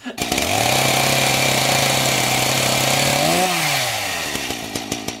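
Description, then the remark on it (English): A chainsaw engine roars at a steady high idle for several seconds, then its pitch dips and revs unevenly before settling, loud with a buzzing, rattling tone. “and that was the sound of a chainsaw.”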